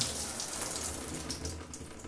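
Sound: shower water running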